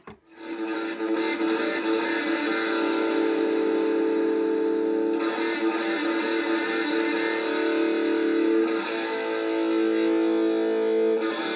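A loud, distorted hard rock track plays continuously on Rádio Maresia as track number 4, with dense, gritty guitar tones and steady sustained harmonics filling the mix, no voices heard.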